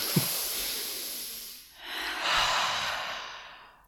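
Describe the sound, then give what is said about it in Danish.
A deep breath drawn in, then a long breathy exhale, fairly loud with no talking. The inhale lasts about a second and a half, a brief pause follows, then the outward rush. “Og en dyb vejrtrækning.”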